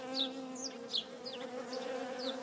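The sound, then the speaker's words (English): A steady, dense hum of honeybees buzzing in a home bee yard in Douglaston, Queens, droning continuously at moderate volume, with faint bird chirps dotting the background. No one speaks. “Here's what it sounds like in her bee yard.”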